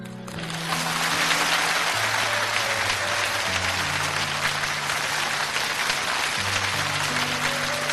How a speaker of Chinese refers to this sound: 谢谢大家几下的掌声。